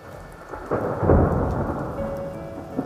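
Steady rain hisses as a deep roll of thunder swells in and rumbles on, loud and sustained, with no voices.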